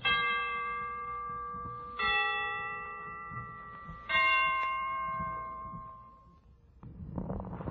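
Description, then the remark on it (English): Christmas church bells ring out in three resonant, sustained strikes about two seconds apart, each tone hanging and slowly fading, before a brief burst of noise at the end. “The Christmas bells can ring any time they're ready.”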